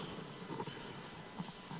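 Horse hooves clip-clop softly in a few scattered, uneven beats over a steady background hiss, with no voices present.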